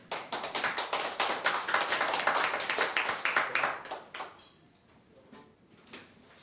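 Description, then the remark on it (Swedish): A burst of audience applause, dense, with scattered hand claps that carry on steadily for about four seconds before thinning out into a few last claps and quiet. “Det vill vi ha applåd för.”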